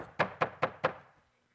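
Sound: knocking on a door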